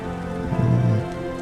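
Steady rain patters continuously beneath a sustained, low musical drone, with a brief swell of deeper tones in the middle; no one speaks.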